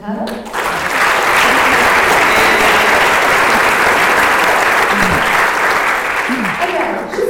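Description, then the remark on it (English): Sustained, loud applause from a sizable audience for several seconds, a dense wash of clapping that swells quickly and holds steady before easing slightly at the end. “Um, so, round of applause for”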